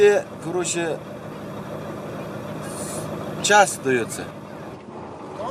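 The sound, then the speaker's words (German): Steady, heavy engine rumble from inside a truck cab as it drives along an ice road in Russia, with brief bursts of voices talking over the constant low drone. “Im LKW auf der Eisstraße”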